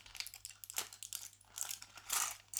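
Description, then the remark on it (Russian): Dry, crinkly rustling of dried Icelandic moss being handled, a soft, uneven run of crackling bursts with brief pauses between them, quiet overall and with no voices. “просто ш- шуршани исландским мох, мухом только подальше от микрофона.”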